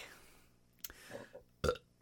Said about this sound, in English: Well, hold on. you got all those burps in. I got them, apparently.